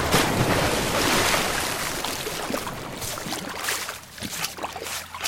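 A small boat pulls up to the shore and is moored, with steady water sloshing and splashing against the hull and a few knocks and scrapes as it settles. No one speaks.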